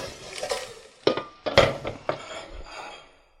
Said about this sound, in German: So, dann setzen wir das Wasser auf.